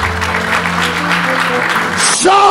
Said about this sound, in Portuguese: O pessoal tá aplaudindo o quê é aí?